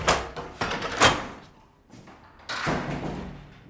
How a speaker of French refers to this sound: Vous descendez l'escalier, juste à l'étage du dessous, il y a écrit euh, bloc de chirurgie réfractive et euh, vous poussez la porte et vous attendez là,